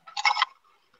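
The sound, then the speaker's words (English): A quick pour of a cocktail from a cocktail shaker into a glass, a bright splashing clatter lasting under half a second, then quiet with a faint trailing clink. “And then just dump it right in your glass.”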